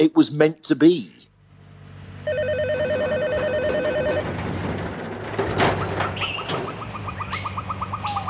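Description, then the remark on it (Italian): A brief spoken voice gives way to a telephone ringing, a steady electronic trill layered over a sustained musical background, with sharper chirping rings toward the end. “Se mentre registri si sente il telefono che squilla, va bene così.”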